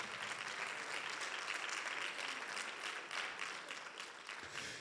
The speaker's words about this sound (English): Can we just give another big round of applause for the mothers?